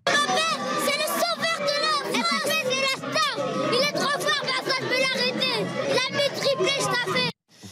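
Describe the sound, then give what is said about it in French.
About 60 children from a Bondy football club, watching a football final in a restaurant, erupt in loud, excited cheering and shrieking at a Kylian Mbappé goal, many voices overlapping in a sustained roar of celebration that suddenly cuts off near the end. “Le prince de Bondy a fait littéralement exploser le restaurant.”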